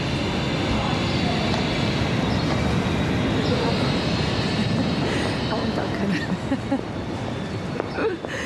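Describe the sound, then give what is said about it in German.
Busy ambience at Zürich main station, platform 12, with a steady, dense rumble of rail traffic and echoing station noise, a train running throughout, with indistinct crowd murmur mixed in. “Am Zürcher Hauptbahnhof treffe ich die Autoren Jahrgang 1964.”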